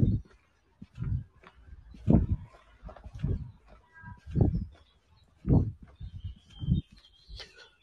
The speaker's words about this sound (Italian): sì, sentite che spettacolo. Pieno di uccelli.